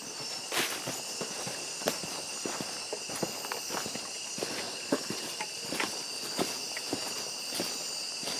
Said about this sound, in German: Jetzt geht es aber erstmal los mit einem Besuch des Amazonas Regenwaldes. Bitteschön.